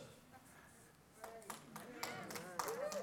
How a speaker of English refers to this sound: Yeah, you can clap